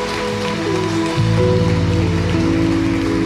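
An audience at a church meeting claps steadily in celebration, in the name of Jesus, a dense crackling wash of applause that holds at a constant loudness while sustained keyboard chords play underneath, with no voices.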